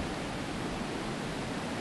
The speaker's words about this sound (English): It's nice to hear the water in the background, isn't